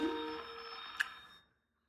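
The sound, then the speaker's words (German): A telephone rings with a steady electronic tone, holding for over a second with a brief click partway through before cutting off into silence. No one speaks. “du musst ans Telefon und ich glaube, wir können aufhören.”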